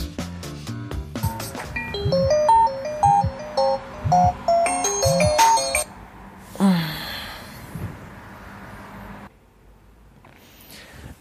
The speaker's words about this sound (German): morgens um sechs, die sich selber aufgenommen hat, als der Wecker geklingelt hat.